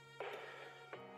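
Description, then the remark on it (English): A phone rings faintly with a steady electronic ringtone, a sustained tonal chime that swells briefly and carries on through the short moment, with no one talking. “Pardon my, pardon my phone.”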